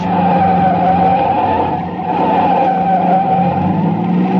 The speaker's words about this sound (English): I whipped my wheel to the right and skidded onto a bridge.